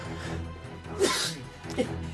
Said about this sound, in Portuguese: me desculpa, mas eu não consigo fazer igual você, engolir o espirro, não. Não, não tem problema, rapaz.